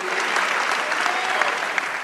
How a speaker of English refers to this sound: Would you clap it up and give God a hand clap for the souls that are being won, the lives that are being changed, and all that God is doing?